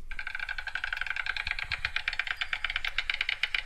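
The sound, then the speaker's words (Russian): A stork clattering its bill: a rapid, continuous wooden rattle of dense clicks that holds steady for several seconds, moderately loud, with no voices. “Знаете, веерохвосток не нашел, нашел аиста. Давайте послушаем.”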